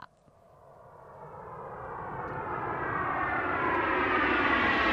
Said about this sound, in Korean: 자, 뭔가 비행기 소리가 들리는 것 같고, 브레이크 댄스를 쳐야될 것 같고, 예. 예! 예! 하는데 끝났어요.